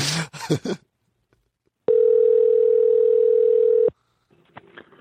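A single loud, steady ringback tone from a telephone call to Don Frye sounds for about two seconds, a smooth mid-pitched hum, after some brief clattering noises and before faint rustles.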